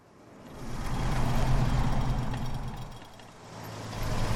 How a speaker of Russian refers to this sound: Две легковые машины проносятся через участок для оплаты проезда, как в погоне.